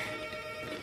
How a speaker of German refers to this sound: Das ist die Klingel bei dir? Ja, verrückt.